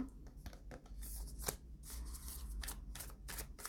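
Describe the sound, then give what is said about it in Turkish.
Tarot cards being shuffled, a steady run of soft, crisp papery flicks and riffles with a few sharper snaps, continuing for several seconds with no one talking. “Kartlarla oynayayım birazcık.”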